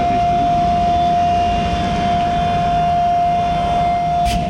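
A fuel-cell-powered garbage truck made by Faun, demonstrated at a trade fair, runs its hydraulic compactor, which is driven by the fuel cell: a loud, constant pump whine held on one pitch over a dense mechanical rumble, with no talking throughout.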